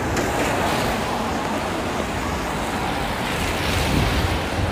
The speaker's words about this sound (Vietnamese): ngoài đường xe ầm nhở mọi người nghe thấy xe ầm không mình phải dừng lại một lát để cho nó đỡ ầm đấy rồi mình mới nói tiếp được